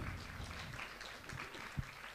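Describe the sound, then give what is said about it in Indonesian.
An audience of mothers and fathers who came to JDC to learn for their children claps steadily for about two seconds, a dense, even patter of many hands at moderate-to-soft volume, with no voices over it. “Boleh tepuk tangan untuk semua yang sudah datang di sini.”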